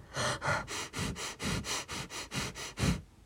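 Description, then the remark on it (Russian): Rapid, shallow panicked breathing into the microphone, about eleven quick airy breaths in a steady hurried rhythm, deliberately performed by a person demonstrating how people breathe when in a state of panic, with no talking. “Потому что когда мы э, в паническом каком-то состоянии, мы обычно как дышим? Очень э, часто и очень неглубоко. Сейчас я подышу вам в микрофон.”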